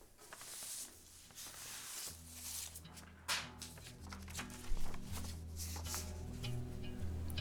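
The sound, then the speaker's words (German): Crisp rustling and crinkling of paper letters covering a floor as they are shuffled and handled in bursts, with a low, steady musical drone swelling underneath after the first couple of seconds. “Der ganze Boden voll Papier. Briefe anscheinend.”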